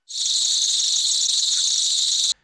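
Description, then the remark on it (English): A loud, steady cicada drone, a dense high-pitched buzz that starts abruptly, holds constant for about two seconds with no pauses, then cuts off. No voices. “And for people living in areas where these cicadas have taken over, they're basically ruining your life.”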